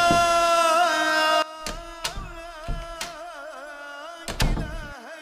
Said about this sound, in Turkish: Medresenin ahşap kapısını tıklatıp içeri girdik.